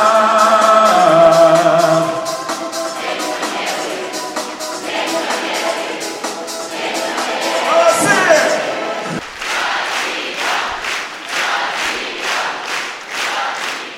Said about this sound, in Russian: Так громкими аплодисментами участники Международного молодежного форума АТР приветствовали ветерана Великой Отечественной войны